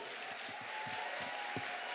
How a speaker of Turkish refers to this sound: İyi ki Fox var dememizi sağlayan başta haber genel yayın yönetmenimiz Doğan Şentürk olmak üzere tüm haber ekibimize bir alkış rica edebilir miyim?